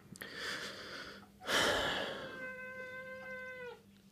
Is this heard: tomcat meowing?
yes